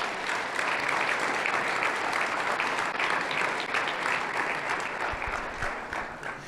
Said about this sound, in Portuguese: Você pode aplaudir o Senhor por cada um desses projetos?